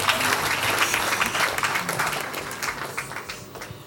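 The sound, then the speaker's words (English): A crowd breaks into steady, dense applause for a preacher, many hands clapping together for the full length without a pause, loud and sustained with no voices rising above it. “thank you thank you thank you clap your hands for him again”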